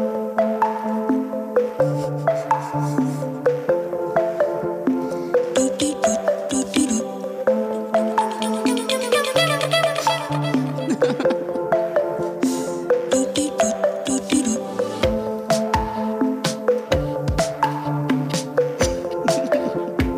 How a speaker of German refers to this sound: Ja klar, es klingt so wie ein fröhlicher Volkshochschulkurs Xylophon.